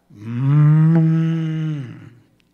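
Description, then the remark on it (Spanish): A person imitates a cow's moo with one long, low, steady drawn-out call, fairly loud, about two seconds, trailing off at the end. No words are spoken. “Y ellos lo tienen en su casa y de repente entra una vaca.”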